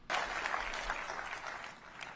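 A crowd applauds a Republican presidential candidate's anti-China remark, clapping steadily for about two seconds, a dense, even burst of applause starting sharply and holding at moderate loudness, with no voices over it.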